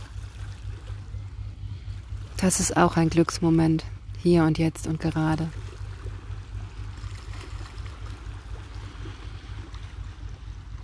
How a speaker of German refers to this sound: Es ist so ein friedlicher Ort hier gerade. Ich genieße es unheimlich, dieses sanfte Plätschern der Wellen zu hören.